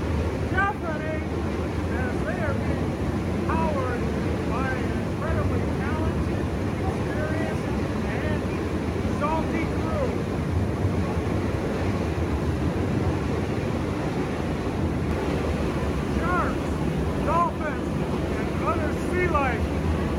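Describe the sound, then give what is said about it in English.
Powerful boat engines roar steadily and loudly throughout, a dense low rumble mixed with wind noise, while indistinct voices murmur faintly beneath it. “The roar of the powerful engines is definitely”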